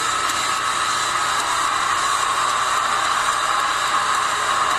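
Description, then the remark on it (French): A huge wrestling arena crowd roars with sustained booing and shrill whistling at a wrestler's entrance, a dense, loud, unbroken wall of noise lasting the whole moment with no individual voices standing out. “il se fait siffler comme on a rarement entendu quelqu'un se faire siffler à WrestleMania”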